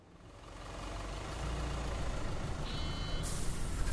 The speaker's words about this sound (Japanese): 通学バスが到着し、